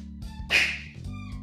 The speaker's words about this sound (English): And so that's my dog barking.